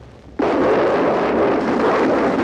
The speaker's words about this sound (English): his voice is, uh, you know, drowned out in different parts by the racket of the gunfire.